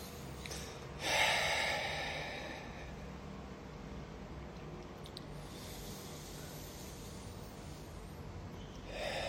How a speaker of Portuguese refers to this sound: Nós temos começado esse momento também respirando fundo, né? Trazendo oxigênio para o nosso cérebro.